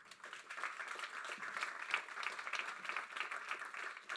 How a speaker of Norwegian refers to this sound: Vær så god. Hun kan få en applaus også.